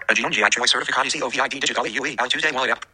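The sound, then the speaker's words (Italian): A synthetic VoiceOver screen-reader voice reads the Italian text of a website with an American English pronunciation, because the page's language tag is set to English. It speaks steadily and clearly for nearly three seconds before stopping. “Ok, ci legge Alex con la sua pronuncia americana perché lui pensa che sia inglese.”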